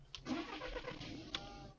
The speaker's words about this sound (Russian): Там в целом звук зажигания машины. Моей машины.